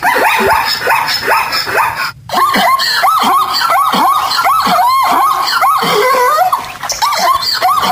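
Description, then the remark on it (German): A zebra's barking call: a loud, rapid series of harsh, yelping honks repeating in quick rhythm for several seconds, alone, with a brief pause partway through. “Unser großer Redaktionsstab hat sich mal an die Arbeit gemacht, ist sofort ausgeschwärmt und hat Zebras interviewt und wir haben jetzt original Zebratöne.”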